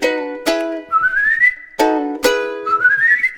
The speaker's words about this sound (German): weiß mit dem Locken umzugehen und mich aufs Pfeifen zu verstehen.